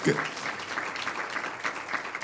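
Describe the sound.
A steady wash of applause from many hands at a church service, given to a family, with dense crackling claps sustained at an even level for a couple of seconds and a brief voice at the start.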